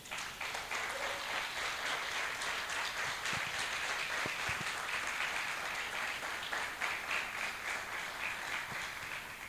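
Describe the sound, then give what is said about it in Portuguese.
A crowd applauds for the Lord steadily for the whole clip, a dense, even wash of many hands clapping at a constant loudness, with no voices standing out. “Quero um aplauso para o Senhor.”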